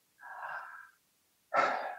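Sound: audible deep breath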